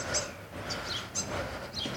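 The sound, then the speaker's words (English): Birds chirp outdoors on a windy street in short, high, scattered calls, about half a dozen over two seconds, fairly faint against a steady low rumble of wind or traffic. “Can you hear the birds?”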